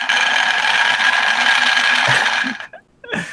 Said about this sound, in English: Okay, so today we have a 3D printed uh, dice roller, an automatic motorized dice roller, which I have in my hand right here. There's an uh, LED arcade button. When I press the button, you're going to hear some ruckus.